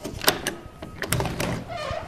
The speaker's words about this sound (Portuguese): Bem, foi numa terça-feira de manhã, hora em que Vitor Hugo recebia os amigos e partidários em casa. Alguém bateu a porta do seu apartamento sem ter sido anunciado.